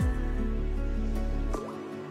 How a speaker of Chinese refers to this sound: 小溪依然在流淌着。